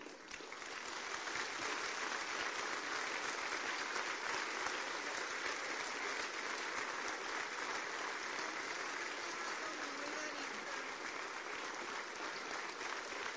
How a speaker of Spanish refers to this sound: Denle un fuerte aplauso a sus diamantes.